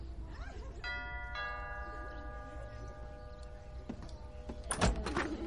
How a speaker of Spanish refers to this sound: Vera se acerca a la puerta y escucha. Mira extrañada a Mark y pulsa el timbre.